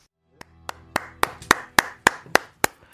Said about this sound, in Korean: 스튜디오에서 제가 혼자 치는 박수지만 여러분들도 같이 쳐주셨죠.